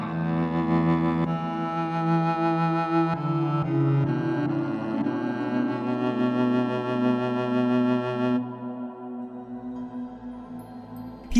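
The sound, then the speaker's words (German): A bowed viola da gamba, without pads and with reduced reverb, plays a slow, sustained melodic line with a dry tone and audible bow scrape on each stroke, heard alone without voices. “Halt dasselbe Instrument noch einmal, aber ohne Pads mit reduziertem Hall und mehr Bogengeräusch.”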